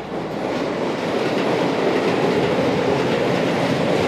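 A train rolls by loud, its steady rumbling roar filling the whole stretch with a faint clatter of wheels on rails underneath, no voices present.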